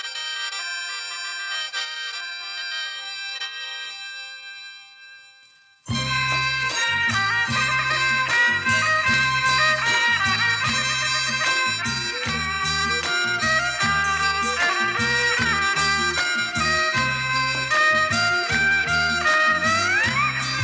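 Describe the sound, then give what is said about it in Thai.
A bowed Isan so fiddle plays sustained, wavering high notes alone, then a full band with a steady drum beat and bass comes in loudly underneath as the fiddle melody continues. “นี่คือเสียงโซของคนขี้เมา”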